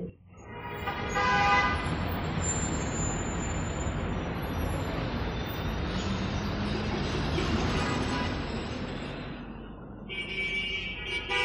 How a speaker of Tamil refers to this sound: சென்னை பிஸியான Monday morning Periyar road டிராஃபிக்கில் Rajiv Gandhi government hospital வாசல் அங்கே ஆம்புலன்ஸ் வரிசையாக நின்றுக்கிட்டு இருக்கு